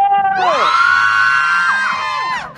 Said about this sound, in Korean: 지금 오픈 스튜디오에 또 우리 멜로디 도토리 분들이 오셨어요. 인사해주세요. 어, 멜로디! 어, 멜로디! 소리 질러!